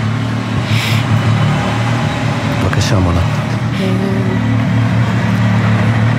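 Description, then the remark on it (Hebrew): Road traffic in a village centre, with a bus passing and rumbling loudly and steadily throughout, its deep engine drone filling the scene while people talk over it. “כן, קולות של כלי רכב, הנה אפילו אוטובוס שתכף יעבור ויעשה קצת רעש.”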